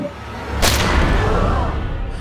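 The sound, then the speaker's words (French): A single sharp pistol gunshot cracks out near the start as Harry Thaw fires at Stanford at point-blank range, followed by a low, rumbling echo that lingers under a steady dark ambience. “Harry Thaw tire sur son adversaire à bout portant.”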